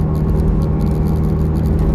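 Steady low rumble of a car's interior while driving, a constant engine and road drone with no voices and no change in level throughout.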